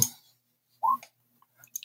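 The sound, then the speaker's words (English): Three blue dice clatter briefly: a sharp knock at the start, a short rattling burst a moment later, then a few faint scattered clicks as they settle. It's fairly quiet, with no talking. “you have three blue dice”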